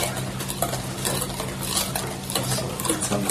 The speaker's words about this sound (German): Rohes Ei. Rühren. Jetzt Spatz. Jetzt kommt die heiße Milch da rein. Und wenn du nicht rührst, haben wir nachher Rührei.